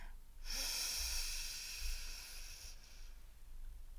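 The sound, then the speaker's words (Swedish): A single long, deep inhale taken at the start of a guided meditation, a steady airy rush lasting a couple of seconds before trailing off into quiet background noise. No one speaks. “Och så ta ett djupt andetag. Vi gör det tillsammans. Andas in.”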